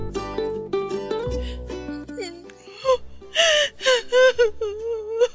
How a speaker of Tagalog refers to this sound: Umiiyak na ako dito oh. Nasaktan na ako.